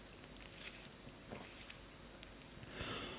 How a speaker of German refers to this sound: Oh Gott. Mm. Das klang maximal falsch. Das klang nach dem ersten Kaffee des Tages. Ah, ja. So ich trinke jetzt hier einen schönen Latte Espresso.